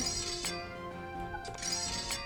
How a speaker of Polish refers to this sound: Wyjmowanie miecza, chowanie miecza,